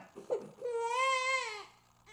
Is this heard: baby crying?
yes